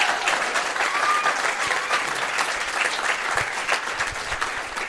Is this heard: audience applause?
yes